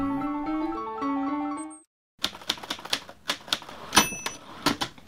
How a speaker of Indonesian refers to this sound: Masih ingat suara apa itu? Hmm, kalau generasi Z pasti sudah tidak pernah mengenal suara itu karena setiap hari suara ketikan zaman sekarang nyaris tidak terdengar. Iya, suara tadi adalah suara mesin ketik tempo dulu.